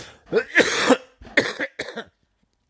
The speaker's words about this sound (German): Ich werde husten zwischendurch, ja, wie ein Kohlearbeiter